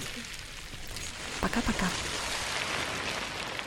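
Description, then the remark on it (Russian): Loose plastic waste collected from a single beach by an environmental team is shaken and rolled to mimic ocean surf, producing a steady, hissing wash that swells slightly throughout, while a voice briefly speaks over it in the middle. “И, кстати, это не звуки океана, это звуки пластика, который команда Less Plastic собрала на одном пляже, чтобы мы с вами услышали, как может звучать океан для будущих поколений.”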